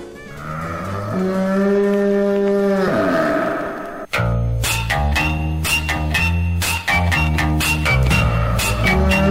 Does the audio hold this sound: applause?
no